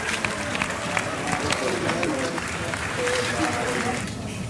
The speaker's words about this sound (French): Les grands sourires sur les visages, le président de la République, Jean-Yves Le le président du CNES, les applaudissements.